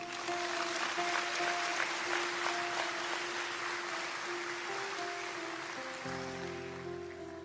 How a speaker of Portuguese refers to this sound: Dê uma salva de palmas para ele.